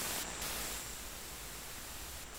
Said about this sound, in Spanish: Empieza con ruido, ruido blanco. Bellos sonidos.